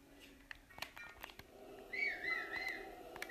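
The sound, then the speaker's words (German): A short, quiet whistle with a wavering, slightly warbling pitch, starting about two seconds in over a faint background hum and some scattered clicks. “Warum habe ich gerade gepfiffen?”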